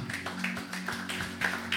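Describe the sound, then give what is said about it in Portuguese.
A round of applause: many hands clapping in a dense, steady patter that fills the whole moment at a fairly even, moderate loudness, with a faint low hum underneath and no voices. “Salva de palmas, gente.”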